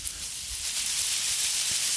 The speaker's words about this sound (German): Und die Rosen noch ein bisschen Wasser geben hier. Die fangen jetzt nämlich auch an zu blühen.